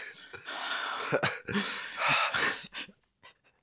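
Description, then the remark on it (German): A voice imitates exaggerated deep breathing after gulping down a whole glass of a drink: loud, breathy inhales and exhales in a few long heaves, trailing off into faint short puffs. “kennst die Leute, die nach dem Trinken so ganz tief atmen müssen, weil sie ein ganzes Glas runtergetrunken haben und daraus so eine Wissenschaft machen.”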